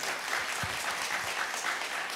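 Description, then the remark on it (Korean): An audience claps in a steady, dense wash of applause, many hands overlapping evenly throughout with no voices standing out. “박수 한번 주세요, 여러분.”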